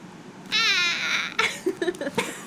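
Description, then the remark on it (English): A sharp, high-pitched vocal squeal rings out for about half a second, followed by a few choppy, broken bursts as if the sound drops in and out. “it was such a shriek, a squeal.”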